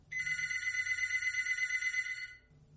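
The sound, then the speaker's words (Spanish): A telephone bell rings in one continuous metallic trill lasting a couple of seconds, bright, over a faint low hum, then stops abruptly. “Justo en ese momento, suena el teléfono.”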